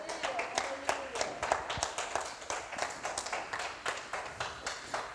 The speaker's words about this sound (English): Give the Lord a round of applause for that.